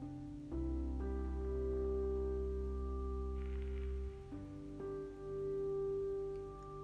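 Steady, soft rain hisses in the background beneath sustained, droning musical chords that shift a few times, with no voices present.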